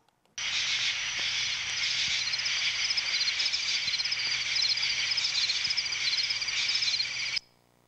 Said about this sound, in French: Les insectes